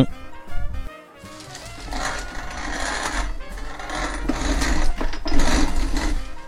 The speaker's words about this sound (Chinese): 刚才你听到的呢，就是磨麦芽的声音。我们酿酒的第一步是，如果你是全谷物酿造的话，你买回来的麦芽的谷物要把它磨碎了才能。